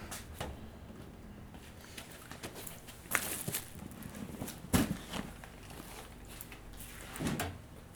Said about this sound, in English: Let me move this space. Give you a table. Minor adjustments. Minor.